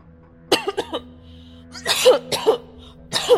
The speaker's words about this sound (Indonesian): Batuk kan?